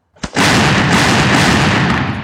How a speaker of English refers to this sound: At 3 p.m., Mexican and American cannons exchange fire.